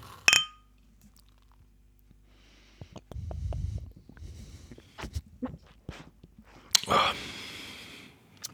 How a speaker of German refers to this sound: Das heißt, ich trinke das jetzt. Prost. Ich, ich trinke es auch. Prost.